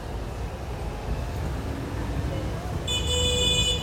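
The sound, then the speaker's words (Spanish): Street traffic rumbles steadily in a dense, low roar of engines, and near the end a sustained high-pitched tone, like a horn or whistle, rises over the noise. “Como escucharán, estoy en la calle y la calle está llena de ruidos”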